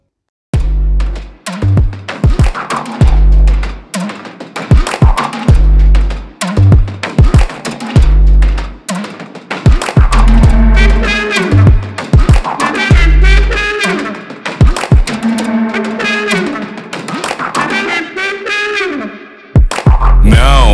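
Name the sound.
rap song played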